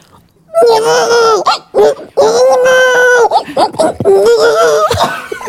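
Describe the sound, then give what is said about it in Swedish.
A person imitates a crying baby by screaming into her arm, with loud, wavering wails in several drawn-out bursts separated by short breaths. “Men gud, det där var jättelikt min när jag skrev en bebis.”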